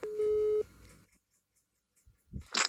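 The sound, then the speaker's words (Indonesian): A steady electronic telephone tone sounds loudly for about half a second as a phone call is placed, then cuts off into near silence before a brief rustle and a burst of noisy handling sounds. “oke mari kita telepon dulu dia”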